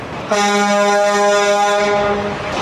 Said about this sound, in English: Yeah, honk, honk, honk, honk goes the truck. Honk, honk goes the truck. Honk, honk goes the truck.